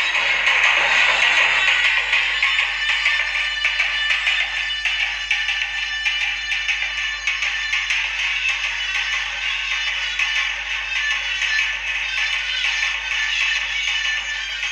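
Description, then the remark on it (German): Loud, shrill Turkish wedding music plays nonstop outdoors in a residential courtyard, sounding thin and tinny with little bass, played back from a phone video recording, with no talking over it. “Ja, die waren bei uns im Hof und haben ähm, ähm, geile Musik gemacht und ähm, die Braut hat, hat getanzt und so weiter.”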